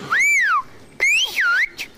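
Whistled speech in Occitan: two loud phrases of sliding, rising and falling whistle tones with a short gap between them, and no talking.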